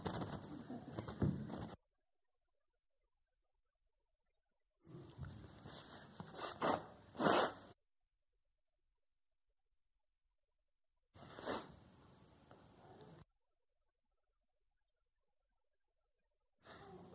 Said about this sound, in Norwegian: Jeg skal bare ta en liten snyttpause.